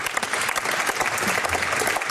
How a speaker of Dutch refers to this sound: Heel goed applaus voor Stintje van Veldhoven.